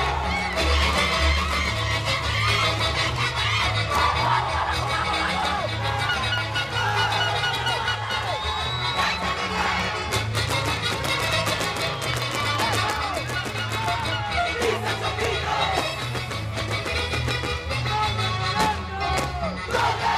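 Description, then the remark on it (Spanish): Loud, continuous festive Andean carnival music from the Huancayo carnival, played for zapateo dancing, with a steady thumping beat, layered with a crowd shouting and cheering throughout, dense with no pauses. “si pudieran ver el zapateo que viene con esta música, que seguramente lo han visto alguna vez, pero verlo nuevamente, pues oye, te llena de energía, de vigor, por supuesto.”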